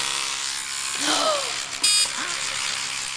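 A Ramax electric toothbrush runs continuously with a steady buzzing whine. Partway through, its pitch briefly shifts and a sharper, higher-pitched burst cuts in before the hum settles again.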